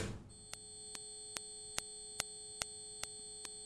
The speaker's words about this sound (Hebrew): אנחנו רואים אותו בגרף, אבל קשה מאוד לשמוע אותו. אני שומע אותו באוזניות שלי, כי הן מעולות. זה תדר מאוד גבוה, שרק כלבים יכולים להבחין בו בדרך כלל, וזה נשמע כמו מין טלוויזיה כשמדליקים אותה, ואז יש תדר מאוד מאוד גבוה.